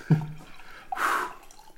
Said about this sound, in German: Vielleicht soll ich mal dein Mikro runterdrehen, während du jemand das, was zu trinken einschenkst.